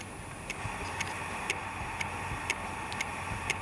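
Crisp, even ticking at a steady two ticks per second, like a mechanical watch, set against a constant low background hum. No voices are heard.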